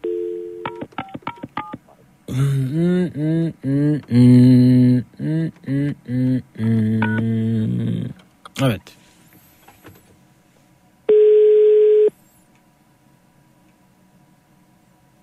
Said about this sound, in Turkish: Telefonunuz dıt dıt dıt yapıyor.